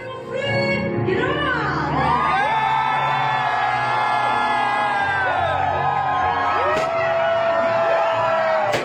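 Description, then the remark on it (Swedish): A wedding audience whoops and cheers loudly and continuously as the newly married couple marches in, many voices overlapping in rising and falling yells with no pause for nearly nine seconds. “I guld Och ni tågade in vackrare än någonsin, publiken tjoade, kimmade, alla var glada, det var, det var fantastiskt”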